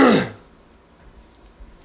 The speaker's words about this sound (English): Clear your throat before the big show, guy.